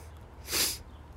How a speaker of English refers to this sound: And that sniff is not, I didn't cry just now. That's uh, allergies, I promise.